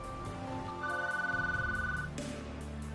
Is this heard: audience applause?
no